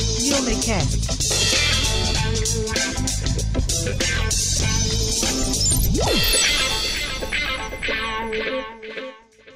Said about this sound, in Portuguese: agora tocou a vinheta. Ouviu o vento, cara? Gostou? Gostou do vento?